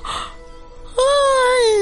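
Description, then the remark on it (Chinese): A voice reading a story aloud imitates a big yawn by the sleepy character Nini: a brief breathy intake, then a loud, sustained, slightly falling open-mouthed tone that holds to the end. “这时，妮妮打了个大哈欠。”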